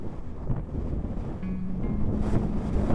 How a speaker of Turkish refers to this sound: Bak şimdi tersten esmeye başladı rüzgar ve gürültü artmıştır.